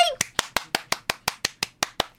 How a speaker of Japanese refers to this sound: こういう時ね一人で拍手すると寂しいんですけれども